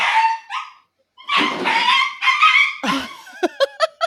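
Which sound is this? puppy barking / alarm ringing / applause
puppy barking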